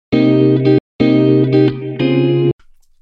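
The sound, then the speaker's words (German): A distorted, effects-heavy guitar loop sample is triggered several times in quick succession on a sampler with volume velocity not yet set, each hit cutting off abruptly at the same loud level before the next, ending in a brief faint tail. “Also immer wenn ich jetzt auf die Gitarre drücke und die triggere, wird die immer gleich laut sein.”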